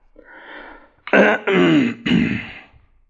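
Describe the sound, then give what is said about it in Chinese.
A soft breathy exhale gives way to three loud, gruff throat-clearing rasps in quick succession, each a rough voiced burst, with a short pause between them and no words spoken, as the Major clears his throat before speaking to the gathered animals. “他清了清嗓子，开始讲话了：”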